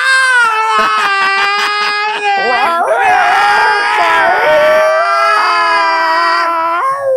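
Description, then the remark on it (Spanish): Cats yowling while mating: loud, drawn-out wailing cries that waver and bend in pitch, overlapping into a harsher, tangled caterwaul midway, continuing without a break. “Que dos gatos tengan sexo cerca a, a 100 metros de tu casa, güey, porque no vas a dormir.”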